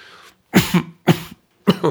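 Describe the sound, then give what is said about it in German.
Three harsh coughs come in a steady rhythm, each a loud burst separated by brief silences, with no talking around them. “Bis auf Husten war nichts weiter.”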